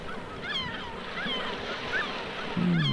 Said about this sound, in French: Les mouettes du bassin d'Arcachon.